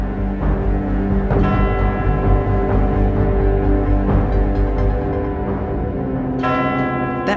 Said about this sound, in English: In some silent and calm night, you can still hear the bell tolling across the bay, despite being removed years ago.